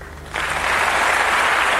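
Audience applause at a song show, a final tribute to Claudio Villa, starts abruptly after a quiet moment, a dense steady wash of many hands clapping at full loudness with no voices over it.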